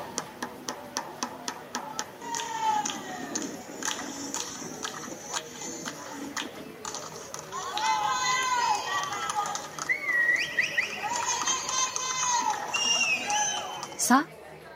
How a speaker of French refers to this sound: Un très bel exemple de cette solidarité aujourd'hui, c'est le rendez-vous de 20h pour crier notre amour aux soignants.